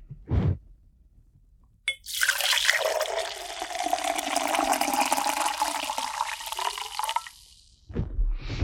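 Decaf Dunkin' Donuts coffee is poured into a cup in one steady stream lasting about five seconds, with a few soft knocks from handling before and after.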